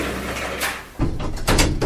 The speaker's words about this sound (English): Please stand back from the closing doors.